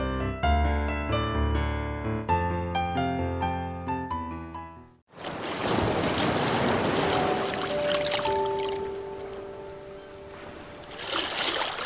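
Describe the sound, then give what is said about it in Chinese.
A short stretch of melodic music cuts off abruptly to loud, steady roaring and washing of ocean waves on the shore, a dense rush that swells slightly toward the end, with faint tonal hums underneath. “你听，海哭的声音啊，不好听吗？”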